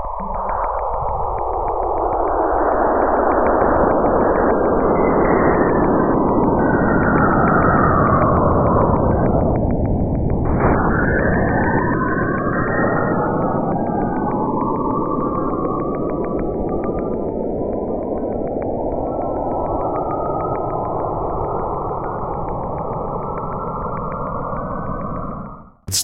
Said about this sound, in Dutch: Die twee hebben dus gewoon communicatie met elkaar. En dat hoor je. En wat, wat je hoort zijn weer plasmagolven.